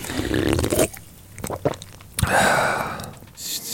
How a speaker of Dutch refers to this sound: ik, ik, ik, ik neem nu een slokje van de frisdrank.